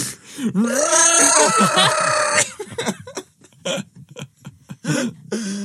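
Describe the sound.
A voice imitates someone screaming into a snorkel: a loud, strained, hollow wail lasting a couple of seconds, followed by a string of short, choppy grunts and honks.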